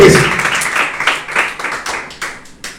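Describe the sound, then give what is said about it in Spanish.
An audience claps their hands together as an offering to the Lord, a dense, loud wash of applause that settles into rhythmic bursts of clapping as it continues. “Me, dice amén, está conmigo, la ofrenda de palmas al Señor que es con todo su corazón.”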